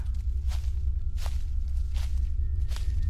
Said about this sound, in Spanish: Solo oía sus propios pasos y los del perro, que fielmente lo acompañaba.